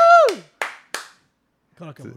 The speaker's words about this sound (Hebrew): בעולם ההיפ-הופ יש מישהו שהוא כל הזמן רק מרים. מרים את הקהל, מרים את האווירה. יש שלט, מחיאות כפיים, כאילו.